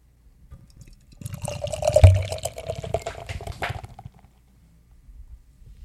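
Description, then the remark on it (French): Beer is poured into a glass for about three seconds, a steady gurgling splash whose tone rises slightly as the glass fills, then fades out. No one speaks. “Euh, je te laisse te servir en premier.”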